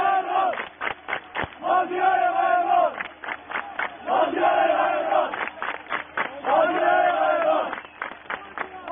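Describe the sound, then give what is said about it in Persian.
A large stadium crowd at Sirous Ghayeghran Stadium (formerly Takhti) chants "Maziar Ghayeghran" to cheer player Maziar Zare in a steady, repeating rhythm, three long sustained calls separated by bursts of sharp rhythmic clapping, loud and continuous throughout. “مازیار زاره که میخوان تشویق بکنن توی استادیوم سیروس قایقران با شعار مازیار قایقران تشویقش میکنن نه مازیار زاره اصلا اصلا نمیشنوید توی استادیوم حالا تختی سابق یا سیروس قایقران الان بگن مازیار زاره نه همه میگن مازیار قایقران و مازیار با افتخار میره”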